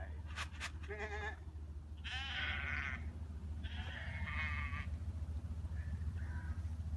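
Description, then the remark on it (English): Several sheep bleat in a video of sheep recognizing their shepherd, a loose, overlapping series of wavering calls, a couple loud and drawn out, the last ones fainter, over a steady low rumble with a few sharp clicks at the start. “I was going to show you sheep recognizing their shepherd.”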